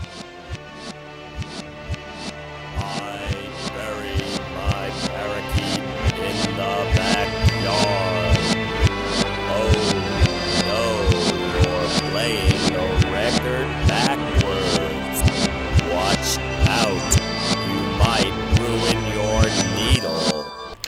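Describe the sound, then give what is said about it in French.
A vinyl record played backwards, with swelling, sucked-in beats pulsing at a steady rhythm and warbling, backward-sounding melodies and voices layered throughout, fairly loud and continuous for the whole stretch. “oh non, tu fais jouer ton disque à l'envers, tu vas scraper ton aiguille.”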